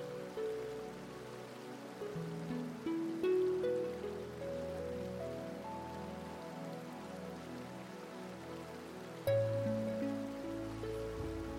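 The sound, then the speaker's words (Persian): Steady rain patters on a surface, a soft, continuous hiss with no talking, joined by gentle sustained tones underneath, growing slightly louder near the end. “باران ریلکسیشن🌧️ آرام کردن استرس و اضطراب”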